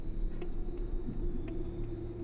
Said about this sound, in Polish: Ruch taki niewielki, przedpołudniowy ruch, kilkoro osób chodzących po chodniku, jakieś parę samochodów przejeżdżających.